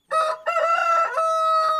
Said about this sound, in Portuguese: É assim que tem que ser. Como galo. Tem que cantar todo dia nessa hora. Que é pra voz ficar boa.